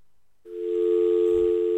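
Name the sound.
phone line tone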